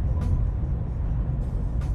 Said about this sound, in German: Ich mag es auch echt sehr schnell Auto zu fahren. Okay, das war jetzt ein bisschen zu schnell.